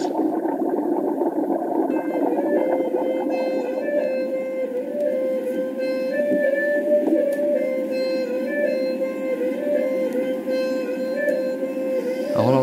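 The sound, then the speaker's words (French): A Laotian sinaï, a traditional wind instrument, plays a wavering, nasal melody over a steady droning tone, continuous and fairly loud throughout, with no voices. “un instrument là, Nicolas l'aîné, le sinaï laotien, qui sert aussi à sociabiliser les éléphants”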